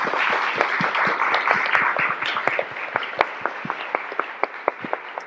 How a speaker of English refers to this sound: So I want to give a big round of applause to all of our speakers today.